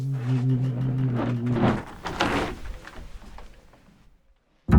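A thick, heavy glass door swings shut with a low rumbling drag and a grinding, crunchy scrape, then settles into near silence before a brief sharp knock at the very end.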